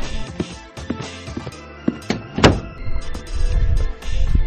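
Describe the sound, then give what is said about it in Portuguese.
Clicks and knocks build to one solid thud as someone shuts their door, followed by faint rustling and a low rumble. No one speaks. “Peraí que eu tenho que fechar minha porta.”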